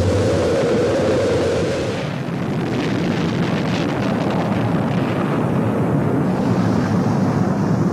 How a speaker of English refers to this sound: T minus 15, 14, 13, T minus 10, 9, 8, 7, 6, 5, four. We've gone for main engine start. We have main engine start.